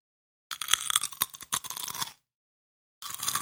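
Loud crunching of crispy peanut chips, a dense run of brittle snaps and crackles for over a second, then a short pause before the crunching starts again. No one speaks.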